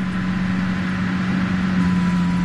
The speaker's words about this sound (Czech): Jsou tady tramvaje a auta, taky lidi. Fakt hustý provoz.